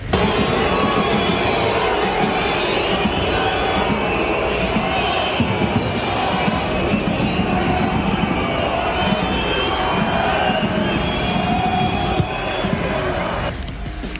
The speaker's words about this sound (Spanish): recibió silbidos y abucheos en el Parque de los Príncipes durante su último encuentro, que perdieron 1-0 ante Lyon.